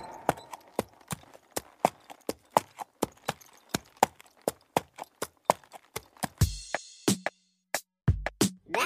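Hooves of a walking horse clip-clop in a steady, even rhythm on a hard surface, fairly loud, with a brief higher rustle or snort near the end.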